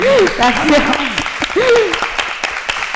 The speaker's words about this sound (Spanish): Un aplauso también para... La... Gracias.